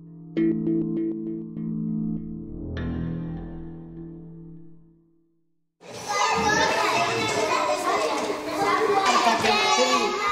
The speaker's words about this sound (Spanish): Así suena una escuela en Ames, en la provincia de A Coruña, que grabó mi compañero Dani Sousa.